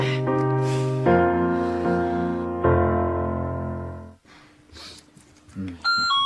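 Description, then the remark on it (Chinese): A doorbell rings with a series of sustained, resonant chime tones, three strong notes each decaying slowly, followed by quieter rustling and a short bright electronic tone at the end. “我去开门啊！来了来了”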